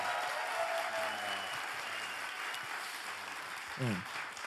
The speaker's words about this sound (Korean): 다시 한번 박수 한번 부탁드리겠습니다.